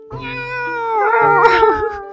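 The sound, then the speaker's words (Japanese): A single long, drawn-out meow, loud, rising and wavering in pitch over about two seconds; it sounds like a person's voice imitating a cat. “じゃあ最後猫でね。”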